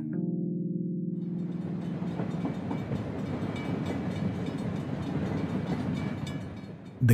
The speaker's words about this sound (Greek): 15 Νοέμβρη 1936 στο τρένο Αθήνα Κοριτσά.